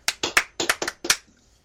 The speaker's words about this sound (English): Oh, it hurts to clap my hands.